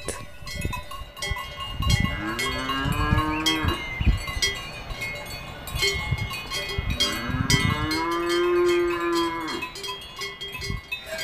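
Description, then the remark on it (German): Many cowbells hung on cows clang continuously and loudly close by as the cattle graze near a terrace, with two long, drawn-out moos rising and falling in the middle of the steady metallic jangling. “Ihr hört vielleicht ein bisschen Moon, ihr hört aber vor allem die ohrenbetäubenden Glocken, die man diesen Kühen umhängt.”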